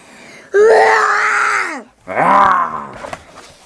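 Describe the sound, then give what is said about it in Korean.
A person imitates a lion's roar with two loud, drawn-out growling bursts, the first about a second and a half long and the second shorter, trailing off into a breathy fade. “아 사자 소리 한번 내주세요.”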